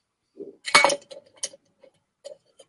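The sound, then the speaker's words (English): Liquor is poured into a shot glass in a quick splashy burst, surrounded by several light glassy clinks and taps, fairly quiet, with no one talking. “and pour it in a shot glass.”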